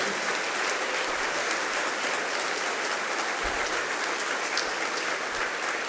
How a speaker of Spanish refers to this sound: Le damos un fuerte aplauso a nuestros misioneros.